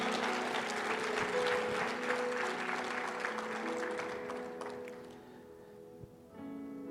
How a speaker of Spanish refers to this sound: Vamos, denle fuerte el aplauso al Señor.